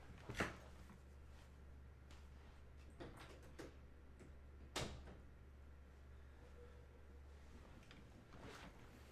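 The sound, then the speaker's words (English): A door is pushed shut with a couple of soft thuds and clicks over a steady low hum, with small rustling and handling noises around it and no talking. “After that short break of squeakiness, I have to shut my door.”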